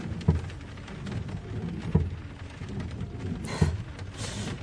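Steady rain hisses across the whole stretch, broken by three low, booming thuds of thunder at fairly even intervals. The downpour sounds fairly loud, with no voices.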